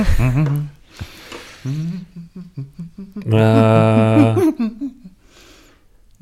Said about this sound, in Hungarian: hát ez eredetileg németül van, köszöni szépen a Zauberflöte Mozarttól, az németül van